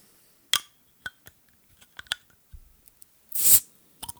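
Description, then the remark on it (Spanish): A drink bottle being opened: a series of sharp plastic clicks and small crackles from the cap, then a brief, bright hiss of gas escaping, followed by a couple of faint clicks. “Vamos a ver si escucho cuando la abro, ¿eh?”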